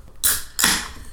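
A can of Sofiero 7.5 beer being opened: a sharp crack and fizzy hiss, then a second louder hissing burst as the tab is pulled fully back. No voices.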